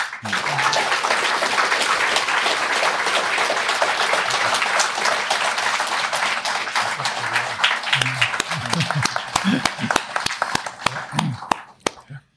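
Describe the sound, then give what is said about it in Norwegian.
An audience applauds three presenters at the end of a live event, dense steady clapping lasting about eleven seconds before tapering off, with a few scattered claps and faint voices near the end. “Dere har alle tre gjort en utrolig god jobb, og jeg bare syns at eh, publikum eh, burde, burde gi de den applausen de fortjener.”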